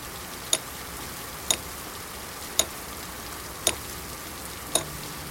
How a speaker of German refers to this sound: Was ist denn das? Also es gibt ja verschiedene Arten von Hämmern. Ähm, na, nach was klingt es denn? Also was wird da gehämmert? Es, es klingt, als würde jemand einen Nagel durch Holz jagen.